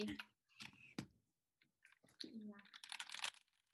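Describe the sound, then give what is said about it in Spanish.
A voice mimics a secretary's computer keyboard typing with quick mouth clicks and tapping sounds, coming in short irregular bursts and building into a denser flurry of clicks toward the end. “Voy a hacer el sonido del teclado.”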